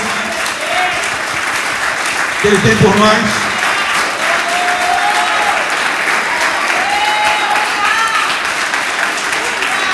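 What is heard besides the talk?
audience applause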